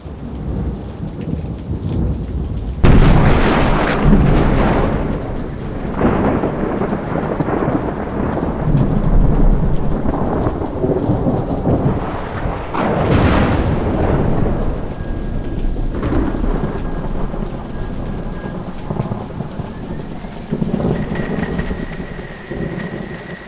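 A thunderstorm: steady, hissing rain runs throughout while several loud, deep thunderclaps rumble and roll one after another, swelling and fading over the downpour. No voices.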